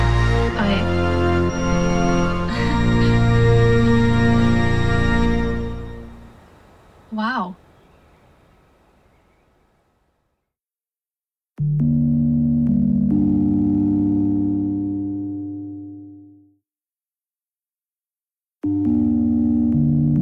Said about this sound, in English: Um, the, robots are all singing and turning toward the android atop the altar.